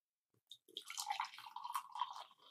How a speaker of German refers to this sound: Ich habe auch mehr erwartet, aber es klang trotzdem cool. Ja, manchmal blubbert der noch so, wenn man das unterdrückt. Ja, das war French Press Live. aber das blubbert jetzt schön.